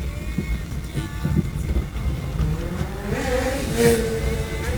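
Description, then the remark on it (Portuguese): An ambulance passes outside over a steady rumble of traffic, its rising, wailing tone swelling in the last couple of seconds, moderately loud. “Não, isso é ambulância, fica tranquilo.”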